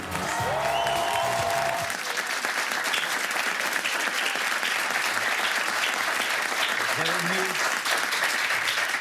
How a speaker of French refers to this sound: Merci d'avoir ri, merci d'avoir applaudi.